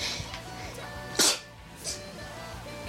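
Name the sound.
sneeze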